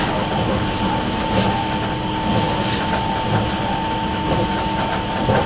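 Steady interior rumble of a 651 series (external-fan type) limited express train, Super Hitachi No. 66 from Sendai to Ueno, running at speed, with continuous wheel noise, a faint sustained tonal whine, and occasional soft clacks over rail joints; no voices.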